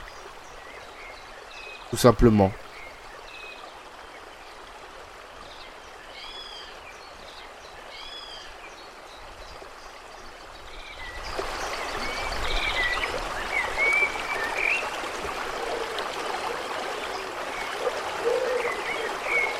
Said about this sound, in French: il y a plein de choses à, voir, notamment les rivières, les bruits des oiseaux qu'on entend tous les jours à 5 heures